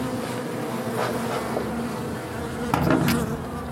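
A steady, dense hum of honeybees buzzing around a hive, a continuous mid-pitched drone with a few louder swells as individual bees pass, and no voices.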